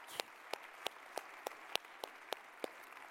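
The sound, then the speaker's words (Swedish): A short burst of hand clapping in a church for the children's leaders, about nine crisp, evenly spaced claps over a few seconds, sounding like one or two people applauding against a faint background hiss, with no talking. “Jag är så imponerad om du är kvar och är barnledare här i vår kyrka eller någon annanstans och bara, eh, alltså de borde nästan få en applåd, kan vi inte ge det bara?”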